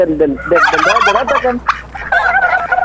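A turkey gobbles in a loud, rapid burst of warbling, bubbling calls, followed by a brief sharp note and a higher, rattling gobble at the end.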